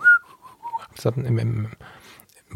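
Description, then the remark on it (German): Someone whistles a short imitation of a birdcall, one longer sliding note followed by three quick chirps, clear, before a person begins speaking. “die Ornithologen entschuldigen, ich kann das nicht nachmachen, aber die, in irgendeinem Strauch habe ich einen Vogel gehört und ähm, ja, habe mich auf die Suche gemacht.”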